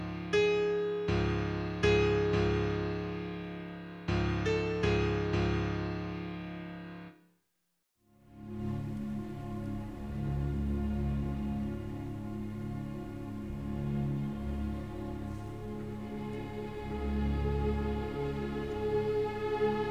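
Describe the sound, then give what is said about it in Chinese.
The opening of a symphony's third movement: orchestral music pounds out a theme on the note A-flat, repeated heavy chord strikes in wave-like surges, breaks off for a brief silence, then returns as a dense, sustained, swelling passage. “我们刚才在这个乐章的开头听到了这样一个主题，它是一个降拉这个音，噔噔噔滴噔噔噔滴噔噔”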